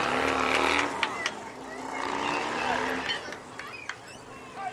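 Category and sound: vehicle, motorcycle passing by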